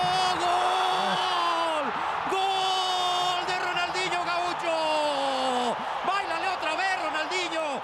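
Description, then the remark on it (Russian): A huge crowd of 50,000 Club América fans at the Estadio Azteca in Mexico City roars and cheers without pause, an ovation for Brazilian playmaker Ronaldinho after his two goals in four minutes, loud and dense, with drawn-out whistles and chanting voices rising and sliding over the constant din. “В этот раз бразильскому плеймейкеру, забившему за 4 минуты два прекрасных мяча, аплодировали 50 тысяч болельщиков Америки на стадионе Ацтека в Мехико.”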